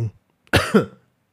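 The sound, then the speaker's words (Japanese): A rough cough from a person with a cold bursts out in two quick pulses, forming one harsh, throaty fit that cuts off abruptly into silence, with a faint breath just before it. “ちょっとね咳しすぎ喉が風邪ひいちゃってね風邪ひいちゃったの風邪今週ずっと風邪ひいててなんかね咳が出ちゃうのよ”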